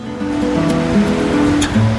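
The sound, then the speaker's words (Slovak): A steady rushing wash of sea surf fills the whole stretch, with a soft sustained musical drone humming beneath it and no voices. “Nikdy nezabudnem, aký dojem na mňa urobilo more.”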